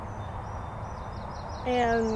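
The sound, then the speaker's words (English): Faint, high bird chirps repeat through the whole stretch, recorded on a phone outdoors in nature, over a low rumble of background car noise, and a person begins speaking near the end. “because it's actually really nice hearing the birds right now and just being outside.”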